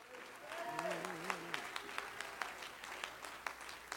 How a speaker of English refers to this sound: He'll give you victory, praise God. Clap your hand to the Lord all over the building.